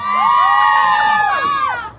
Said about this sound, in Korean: 아 지금 환호성을 지르고 있어요.